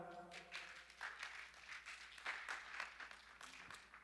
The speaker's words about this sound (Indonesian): Boleh silakan naik, boleh kasih tepuk tangan saudara.